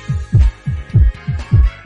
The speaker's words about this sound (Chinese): 那说实话，第一次听到了这个消息啊，我的这个小心脏还是跟着砰砰砰的跳了起来。